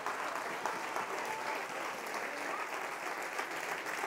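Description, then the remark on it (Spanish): Steady applause from an audience, a dense crackle of many hands clapping at an even level for a few seconds, with no voices breaking through. “Si usted va a aplaudir, yo no sé si alguien está entendiendo.”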